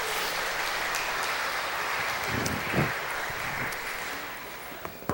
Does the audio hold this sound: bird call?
no